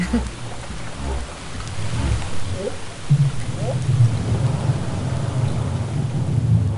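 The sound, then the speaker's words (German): Several short, low upsweeping whup contact calls from a humpback whale mother and calf: the mother calls first, then the calf answers with a quieter whup, imitating her. Moderately faint, rising out of a steady rumbling underwater noise floor, with no voices. “Das waren auch wieder wupp kontaktrufe Und am Telefon hat sie mir das so beschrieben, dass sie zuerst ein WUP von der Mutter gehört hat und dann ein leiseres Whoop vom Baby, das die Mutter wie eigentlich nachgeahmt hat.”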